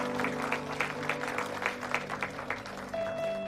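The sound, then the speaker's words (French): An audience at a worship service claps together to applaud Jesus in a steady, even wash of applause over a low sustained organ-like drone, with a brief higher tone entering near the end. “Amen est qu'on peut applaudir Jésus pour euh, remercier de son amour, son attention”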